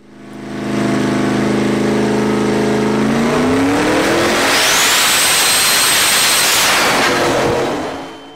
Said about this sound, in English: Uh, if you guys had headphones or this is going to be loud. This is why you should never stand near a dyno, ever, ever when a truck is getting after it.